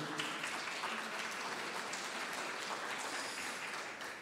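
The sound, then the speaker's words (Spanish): An audience breaks into steady applause, a dense wash of clapping hands that stays loud and even for several seconds with no one speaking over it. “Les dije que no le aplaudieran.”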